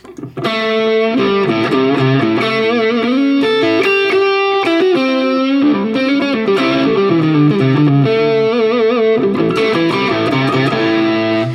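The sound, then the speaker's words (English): A distorted electric guitar on its neck pickup plays a steady, loud run of sustained notes and bends with a warm, thick tone and no voices, shifting pitch every second or so. “And the neck pickup is I don't even know what it is, to be honest with you.”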